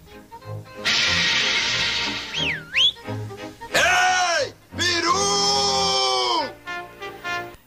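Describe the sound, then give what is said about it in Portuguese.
A turkey call whistle is blown to see if a turkey appears, sounding in several loud, raspy bursts, each sweeping and dropping in pitch, repeated with brief gaps between them over a low background rumble. “Eita, deixa eu botar apito para peru. Pra ver se ele aparece.”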